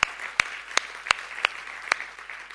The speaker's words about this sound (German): Übrigens, wir müssen mal unseren Übersetzern einen fetten Applaus geben, weil die einfach so ein, ja genau, lass es mal